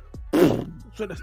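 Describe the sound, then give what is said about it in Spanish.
A person makes a single loud, buzzy fart noise with the mouth, a blubbery burst lasting under half a second, then a brief softer vocal sound trailing after. “cómo yo sabía que me había tirado el peito”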